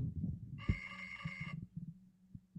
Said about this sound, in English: Is that your phone that's being so loud right now? No, there's a phone call coming into the studio.